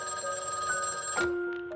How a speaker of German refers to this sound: Dann, eines Morgens, klingelte das Telefon.